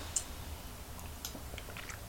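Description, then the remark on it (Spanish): Someone takes a quick, quiet first sip of the day of coffee, with a few soft wet mouth clicks and a swallow over a low steady background hum; nobody speaks. “He dejado que se refresque un poco más el café porque hay muchísimo calor y justamente de las altas temperaturas comenzaré hablando en este primer tema, así que me voy a dar rápidamente el primer sorbito del día.”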